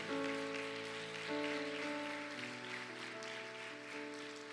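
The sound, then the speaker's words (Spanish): A church audience claps strongly for the King of Glory, steadily and densely throughout, a continuous crackling wash of many hands over sustained musical tones, with no talking. “Denle palmas fuerte al Rey de la Gloria.”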